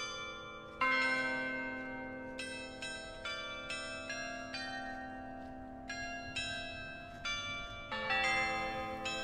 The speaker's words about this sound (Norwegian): Klokkespillet du hører i bakgrunnen, det er Espen Melbø, domkantor